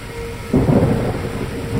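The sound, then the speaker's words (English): A deep roll of thunder breaks in suddenly and rumbles on, low and heavy, over a steady wash of rain during a thunderstorm; no one speaks. “Lightning split the sky, splashing light across everything for just the barest second.”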